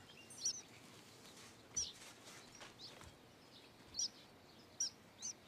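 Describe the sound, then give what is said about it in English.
Small birds chirp in short, high-pitched bursts, five or so spread irregularly over a steady hiss of outdoor background noise. The calls are clear but not loud, with no one talking. “Hi, little birdies.”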